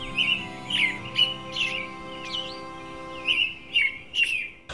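birds chirping

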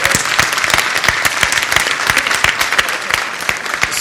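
audience applause

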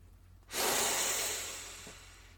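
deep audible breathing

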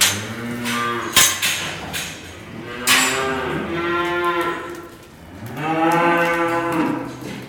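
dairy cows mooing

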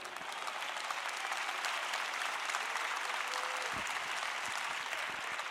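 audience applause fading out

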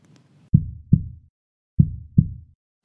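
heartbeat sound effect

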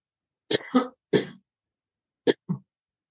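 coughing

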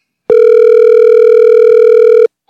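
phone call dialing tone

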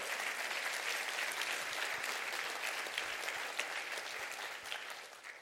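audience clapping hands

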